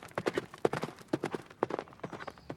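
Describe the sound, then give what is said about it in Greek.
Hooves of a lame, stumbling horse being ridden toward a forest clip-clop in a steady, slightly uneven rhythm, a dozen or so sharp knocks with no voices over them. “Όταν έφυγαν οι άλλοι, πήγε το αγόρι στο στάβλο και βρήκε ένα άλογο. Ήταν όμως κουτσό και παραπατούσε. Ωστόσο το καβαλίκεψε και τράβηξε για το δάσος.”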